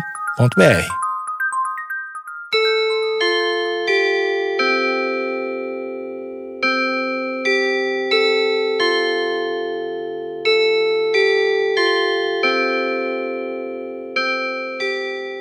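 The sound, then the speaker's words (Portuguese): A cuckoo clock chime plays a slow melody of bright, bell-like strikes, each note ringing and fading into the next, fairly loud after a brief clatter at the start. “Saudações, mas é espetacular ouvir o toque do cuco.”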